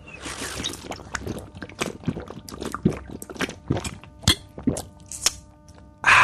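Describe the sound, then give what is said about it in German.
A plastic bottle of still, natural, low-sodium mineral water without carbonation is opened: a run of crisp crackles, crinkles and clicks as the cap twists, with a faint slosh of liquid and no talking. “Ich frage es jetzt mal, Mineralwasser, wenn einer eine Reise tut, dann hat er was zu erzählen. Was ist deine Geschichte? Jetzt mach ich mal auf.”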